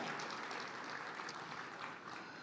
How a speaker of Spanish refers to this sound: Fuerte ese aplauso de alabanza al Señor.